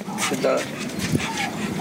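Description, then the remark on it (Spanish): A large, thick-set, imposing dog, being walked back by its handler, gives a few short vocal bursts, part bark and part whine, with muffled human voices murmuring in the background. “es que el perro lo ves de frente y es imponente, porque es uno de esos perros como de caricatura, gruesos, grandotes”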